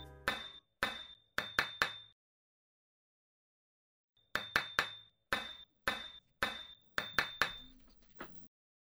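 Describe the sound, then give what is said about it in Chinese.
A stone repeatedly struck against a water pipe on the ceiling of a sewer room: sharp metallic knocks ring out in irregular groups, each with a bright clanging tone. A burst of five, a long pause, then about nine more strikes in an uneven rhythm, like signaling. “此时，被关在下水道密室的怪盗喵，持续拿起手边的石头，敲打天花板上的水管。”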